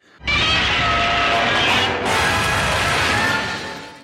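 A loud, drawn-out Godzilla roar from an Animaniacs cartoon, a shrieking, rasping screech that bursts in abruptly as Godzilla rips the roof off a building, catches briefly midway, then rises again and fades off near the end. No one talks over it.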